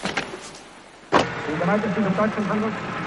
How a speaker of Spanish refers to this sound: A la parte alemana del complejo llega un coche.